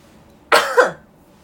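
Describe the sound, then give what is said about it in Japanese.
A single sharp cough with a quick two-part burst, the second push slightly weaker, standing alone against quiet background with no talking. “ちょっと咳が出そう”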